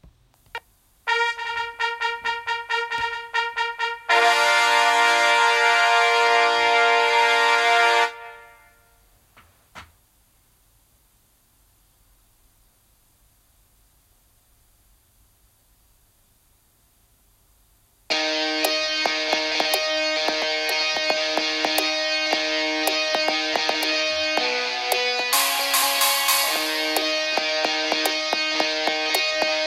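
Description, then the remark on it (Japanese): A recorded original song plays with no talking. A bright, sustained electronic intro gives way to about ten seconds of near silence, then a loud, dense full arrangement kicks in. “というわけでえっ、ー、とまあこれから2年経った僕が作った…という曲を聴いてください。”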